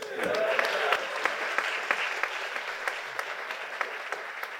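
An audience claps steadily for a few seconds, a dense patter of many hands with sharper individual claps popping out, fading slightly toward the end.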